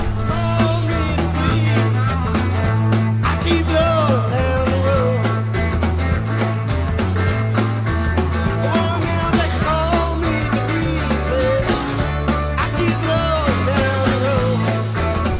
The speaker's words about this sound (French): d'entendre …, une chanson de …